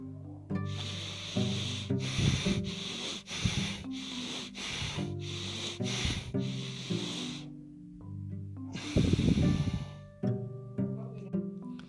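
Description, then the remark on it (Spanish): Heavy, rhythmic circular breathing practice in quick, forceful in-and-out rushes, loud, repeating steadily, then pausing briefly before another strong breath, with soft tonal music underneath. “A continuación, cada uno debe detenerse un momento y hacer su primera práctica de respiración circular.”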